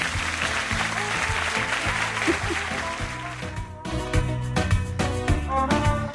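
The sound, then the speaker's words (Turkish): A burst of dense, steady applause over an upbeat musical backing with a pulsing bass line; after about four seconds the clapping drops away and the music carries on alone with a clear beat. “yani yorum yapmak için yorum yapan Gizem'e buradan bir alkış yolluyorum şu an.”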